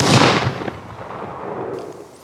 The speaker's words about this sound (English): Then, out of nowhere, the sound of a gunshot sharpened my senses with a rush of adrenaline.